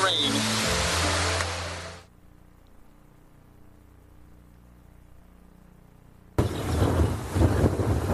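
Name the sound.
heavy rain pouring down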